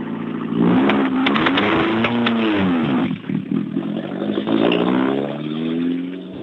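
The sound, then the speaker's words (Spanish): Rally cars roar past at speed on a rally stage in the morning, their engines revving hard and pitch rising and falling as one after another sweeps by, loud and continuous, with no one talking. “Sí, sí, la, la, verdad es que escuchar cómo, cómo pasan los coches da, da, ay, Despertar así por la mañana, qué gusto da.”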